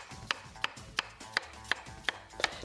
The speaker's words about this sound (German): Das Kürbisfleisch ebenfalls würfeln und dazugeben.